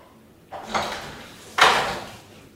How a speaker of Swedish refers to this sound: Efter en kvarts väntan låser en kriminalvårdare upp dörren och släpper in Marek.